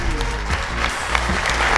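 Steady audience applause, a dense wash of many hands clapping at even loudness for the whole two seconds, with faint voices mixed in underneath, as the host is welcomed at the live show Backa Framåt Live at Scandic Malmö.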